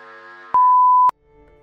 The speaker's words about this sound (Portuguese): Após o bip, voltaremos à nossa programação normal.